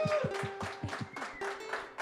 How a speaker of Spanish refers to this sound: Un fuerte aplauso.